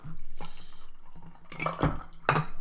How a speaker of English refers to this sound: You and your pouring of ice, man. Like you got problems.